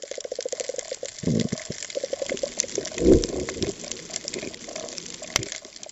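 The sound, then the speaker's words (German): Underwater recording of a healthy, active coral reef, played back over a damaged area of the Great Barrier Reef in Australia: a steady bed of crackling and clicking over low watery rumbles, with a few louder bursts and sharp pops scattered through. “Sie haben bei einem der geschädigten Bereiche vom Great Barrier Reef in Australien Geräusche von einem gesunden, aktiven Riff abgespielt.”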